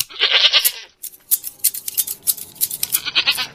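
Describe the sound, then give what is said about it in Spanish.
Goats bleat repeatedly at a farm, a few wavering cries with scattered shuffling and clatter in between, the calls overlapping loosely over a few seconds. “Juan paga su entrada a la granja y va en busca de un mechón de barba de alguna cabra.”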